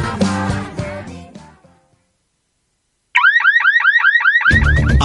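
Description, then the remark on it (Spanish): An electronic property security alarm blares with loud, rapidly repeating up-and-down whooping tones for about a second and a half, following fading music and a pause before a burst of other sound joins in. “Ahora sí, una alarma a la medida de su propiedad.”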